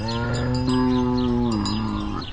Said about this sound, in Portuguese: Olha, por exemplo, uma vaca.